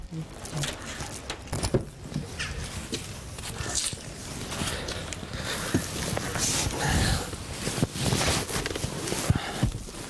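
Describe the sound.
Footsteps of a 30-year-old man walk toward his car at a steady pace over continuous outdoor background noise, with scattered clicks and scuffs, and faint voices murmuring in the background.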